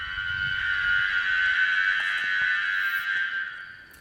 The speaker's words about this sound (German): Ja, so klingt sie, die fliegende Stachelbeere. Im Moment kann man sie noch hören, aber vielleicht nicht mehr lange, denn das Insekt ist vom Aussterben bedroht.